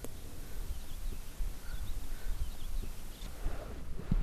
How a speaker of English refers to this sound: Oh, hear that? It's the sound of quiet. Except for the random bird, I feel like I'm alone on planet Earth.